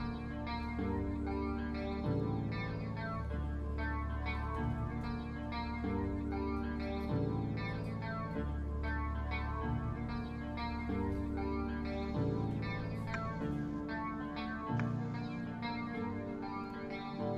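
A song's intro plays alone, a dense, heavily processed texture with chorus-like warble and distortion, its chords shifting every couple of seconds at a steady, fairly loud level.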